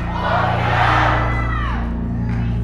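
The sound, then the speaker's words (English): A large crowd shouts and cheers together in one loud, sustained roar that swells and then holds steady, with sustained music tones playing underneath. “Say it like you want the next door neighbors to hear what you're screaming.”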